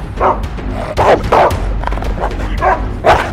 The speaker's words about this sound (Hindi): और रात को सियारों और तेंदुओं से बचाने के लिए बगीचे में तो आदमी रहेगा नहीं ना रखवाली के लिए तो बगीचे की रखवाली करते थे खूंखार विदेशी कुत्ते